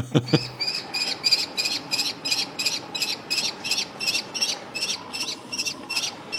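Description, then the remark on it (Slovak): A common kestrel gives a long, steady series of sharp, high-pitched calls, roughly three per second, repeating evenly throughout with no one talking; a brief low thump comes right at the start. “Sokol Myšiar, alebo teda ak chcete pustovka, je samozrejme zákonom chránená, tak ako aj všetky ostatné voľne žijúce vtáky u nás na Slovensku”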